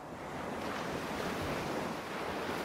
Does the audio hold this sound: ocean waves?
yes